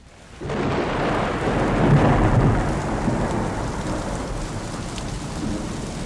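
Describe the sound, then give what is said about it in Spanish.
A deep, rolling rumble of thunder swells and lingers over a steady wash of heavy rain, with no voices present, at the foot of the Sierra Madre Oriental. “Al pie de la Sierra Madre Oriental retumba Catataín, trueno viejo en lengua totonaca, y los mazatecas hablan de que se acerca el mes de trueno grande.”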